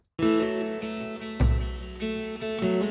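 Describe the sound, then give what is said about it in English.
Guitar chords played on a cheap Martin guitar, its DI sound sent into a ratty guitar amp, rich and sustained with a wash of reverb, rising and falling in a loose rhythm, with one heavier, bass-thick strum near the middle. No one speaks. “moment for me, which was this guitar part, which is weirdly a sort of cheap Martin guitar.”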